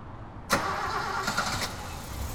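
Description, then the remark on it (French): The engine of a broken-down car, being pushed outside a train station in 1956, cranks abruptly after a brief pause, then churns in a steady rumble with a rougher surge partway through, as if struggling to catch, until it restarts. No voices are heard. “Sur le parvis, un automobiliste est en panne. Mon grand-père l'aide en poussant sa voiture.”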